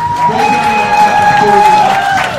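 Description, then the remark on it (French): At the end of a match, an audience gives a last round of applause for their favourite musician, loud and steady throughout, a dense wash of clapping with long sustained whistles and scattered cheering voices layered over it. “Une dernière main d'applaudissement pour notre musicien préféré”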